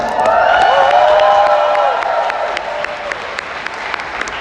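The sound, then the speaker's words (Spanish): Loud, steady audience applause for the speakers' money-management mentor: a dense wash of many hands clapping, with cheering and raised voices riding over it for the first couple of seconds before settling into clapping alone. “para la cual pido un fuerte aplauso”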